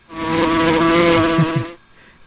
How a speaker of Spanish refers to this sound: Aquí tienes un sonido de avispa.